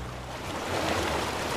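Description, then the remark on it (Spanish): A steady roar of rushing water, broad and hissing, swelling slightly louder partway through and continuing without pause. No voices are heard. “Cuando venga la lluvia, el agua de los ríos suba”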